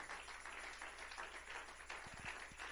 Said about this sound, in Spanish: Démosle un fuerte aplauso a Él. Aleluya. Fuerte las palmas al Señor, hermano.